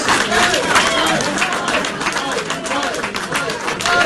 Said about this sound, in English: And the cheering, yes. Yes.